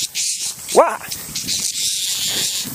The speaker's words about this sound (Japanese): 怖い セミに襲われています